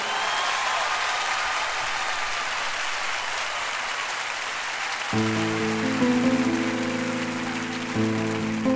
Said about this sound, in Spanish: México, les traigo aquí en mi corazón todo el cariño y el amor de muchos chicos y chicas que trabajan para la iglesia en mi país, en Perú. Y quiero llevarme de ustedes un aplauso para ellos en este momento. Sí, venga.